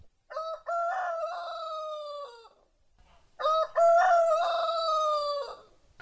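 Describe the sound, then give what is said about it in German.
A rooster crows loudly twice in a row: two long, harmonic cock-a-doodle-doo calls separated by a brief pause, with no talking. “Da ist ja ein Hahn.”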